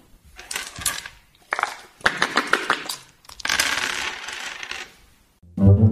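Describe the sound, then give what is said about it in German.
Dice clatter and rattle inside a cup in several bursts, some short and some longer and sustained, loud and close up, followed by a brief low hum at the end. “Und damit niemand schummelt, natürlich auch einen Würfelbecher.”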